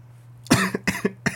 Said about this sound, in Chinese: 这个咳嗽声呢，就是它的后遗症。 对，就是我就是七月七月底的时候确诊嘛，然后在过了一周之后，已经是自主隔离，今天算是完全完全的 Free， 对，那它的后遗症就是现在就会小小的干咳